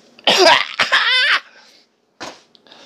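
A person coughs loudly and close to the microphone in a harsh, raspy burst, followed after a short pause by another brief cough and a quieter breathy sound.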